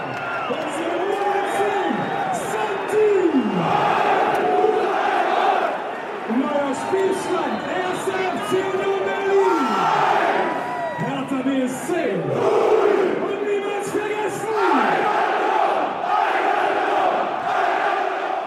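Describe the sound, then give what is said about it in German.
A packed football stadium crowd of Union fans roars in celebration as scarves, caps, T-shirts, programmes, beer cups and homemade confetti fly through the air: a dense, sustained wall of cheering and shouting voices with rising whoops and chant-like swells, loud throughout, with no recorded fanfares played. “der Rausch kurz und heftig. Die Menge wird zur Meute.”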